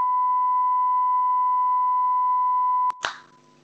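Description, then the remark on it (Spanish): A steady, loud electronic censor beep holds one high pitch for about three seconds, then cuts off abruptly into a short burst of noise and a fading tail. “Pitido.”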